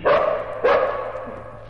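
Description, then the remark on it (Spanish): A dog barks twice in quick succession, each bark loud and sharp, with a short ringing tail fading after it. No one speaks. “Estuvo andando varios días hasta que en el camino se encontró con un perro, flaco y viejo también, que caminaba con la lengua fuera.”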